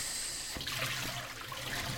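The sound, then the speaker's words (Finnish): Warm rinse water is poured off quinoa through a sieve in a steady rushing stream, splashing, with a hollow gurgle as it drains away. No one speaks. “Ja sitten kaadetaan se vesi pois.”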